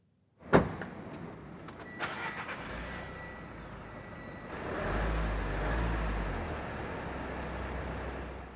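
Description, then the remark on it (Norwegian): A car door thuds shut, followed by a few clicks and rustles inside the vehicle, then the engine starts and settles into a steady low rumble as the car drives off. No one speaks. “Det er dette det handler om, retten til å kunne sette seg bak rattet og kjøre bil når en sjøl vil.”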